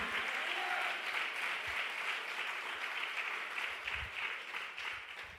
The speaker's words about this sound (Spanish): Vamos a darle un aplauso fuerte al rey.